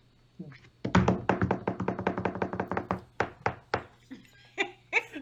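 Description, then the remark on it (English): Hands rapidly tap out a fairly loud drum roll on a hard surface, a quick run of sharp hits that slows into a few spaced final thumps, with a brief vocal sound at the end. “That's my drum roll.”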